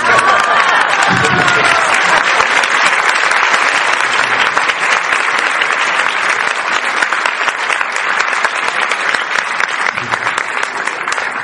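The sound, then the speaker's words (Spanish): Sustained audience applause, a dense, loud wash of many hands clapping at once, steady throughout with a few faint whoops rising above it near the start. “Ok, pueden aplaudir en cualquier momento.”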